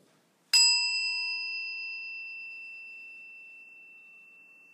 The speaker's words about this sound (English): We ring this bell in solidarity with the people of the world. Today, especially, we hold the people of Puerto Rico in our hearts. As we listen to the chime, let us remember our connection to each other and the world around us.